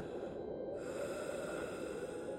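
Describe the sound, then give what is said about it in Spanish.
Heavy, labored breathing rasps on steadily for the whole stretch, a low continuous huffing noise at a fairly quiet level, with no talking. “No podía serlo, no tenía el tamaño de uno, y no me quedó duda al escuchar el sonido de una respiración pesada como la de una persona que respiraba con dificultad.”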